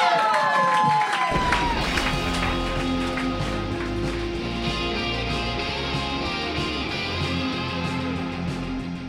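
A crowd erupts into loud, sustained cheering and applause, with scattered whoops and shouts, following a brief descending electronic tone at the start; the dense roar holds steady for several seconds.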